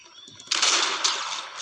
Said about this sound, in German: Du hast gehört, da vorne waren irgendwie Schüsse. Da vorne waren Fighten welche.